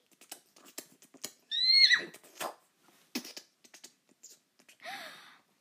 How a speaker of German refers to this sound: Ein Hindernis und noch eine Runde Galopp. Bravo!